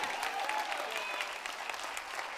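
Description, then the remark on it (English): A church audience claps hands to give God glory in a dense, steady burst of applause, many overlapping claps blending into a continuous bright patter with faint whoops or voices mixed in. “If you believe it, clap those hands and give God glory.”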